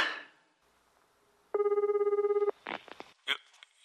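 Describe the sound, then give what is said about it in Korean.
An outgoing phone call for a random phone-connection blind-date project rings once: a steady, faintly warbling ringback tone lasting about a second, followed by a brief voice picking up. “자, 지금부터 전화 돌려보겠습니다.”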